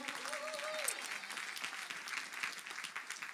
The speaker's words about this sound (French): Est-ce qu'on peut applaudir les serviteurs de la maison Alléluia.